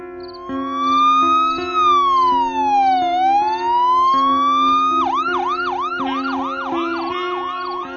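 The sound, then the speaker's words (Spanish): A loud ambulance siren, arriving at dawn, wails slowly up and down, then switches to a fast, repeating yelp, with a steady low engine rumble underneath and no voices. “La ambulancia llegó con el amanecer.”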